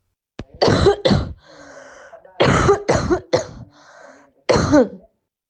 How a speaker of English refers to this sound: and now here is a cough of an asymptomatic person with COVID 19.